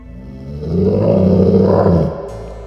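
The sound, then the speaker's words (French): A single deep, ominous howl swells up loudly and holds for over a second before fading, rumbling, with no one speaking. “Quand soudain, on entendit un hurlement inquiétant.”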